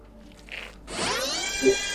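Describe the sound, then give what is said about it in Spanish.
A power drill whirs into action about halfway through, its motor winding up to a steady, high-pitched, loud drilling whine that holds to the end as it drills partway into a horn without fully penetrating, with a faint brief noise before. “El taladro no llega a penetrar todo, así que rompe solo la, parte de la bocina.”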